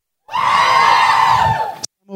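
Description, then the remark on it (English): A loud burst of crowd cheering at a live show at Geek Fest, answering a question about Overwatch fans, with high-pitched screams and whoops, sustained for under two seconds before cutting off sharply; a voice begins speaking right after. “I'm okay with that getting the biggest ovation.”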